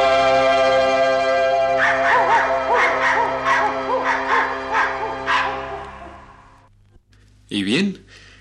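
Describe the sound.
A run of quick, rhythmic puppy-like yips over a steady, sustained musical backing, followed by a brief pause and one louder, higher yelp near the end; the barks may be voiced imitations.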